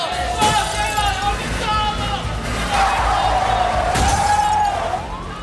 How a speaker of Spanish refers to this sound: Al salir del hotel Dos Piedras, impactan contra el parabrisas del auto astillando los vidrios e hiriendo al chofer.